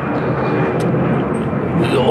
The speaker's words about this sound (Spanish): Se, se me olvidaba decir que van a pasar aviones.